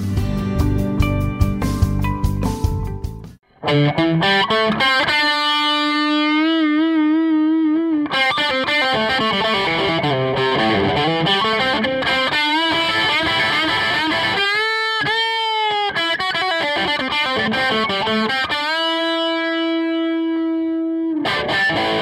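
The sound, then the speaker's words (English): A thick, distorted Gibson Les Paul electric guitar, played by a local musician, plays alone, opening with chunky chords before soaring into sustained, bending lead notes with wide vibrato, loud throughout. “Now, that thick and beautiful sound you heard just now was a Gibson Les Paul, an iconic electric guitar played by local musician Ray.”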